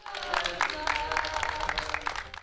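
Steady applause from a crowd, a dense patter of many hands clapping at once, with voices mingling underneath throughout, as a 100-year-old man who recovered after 10 days of hospital treatment is sent off with balloons and applause in Kahramanmaraş, Turkey.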